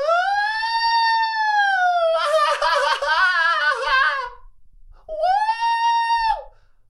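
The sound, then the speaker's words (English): A voice loudly imitates the "woo" cheer a neighbouring table of women gave in unison: a long, sustained whoop, a wavering, warbling stretch like several voices at once, then one more siren-like woo after a brief pause. “Uh, Fifteen times in ten minutes, all of them in unison would go woo.”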